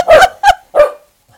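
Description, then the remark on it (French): A small dog lets out three quick, sharp yaps in a row, fairly loud, followed by a brief quiet pause. “Euh, là, voyez, en ce moment, là, il est devant moi, puis il va pousser un petit... un petit jappement, je pense.”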